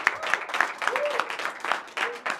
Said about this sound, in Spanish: De un aplauso, por favor.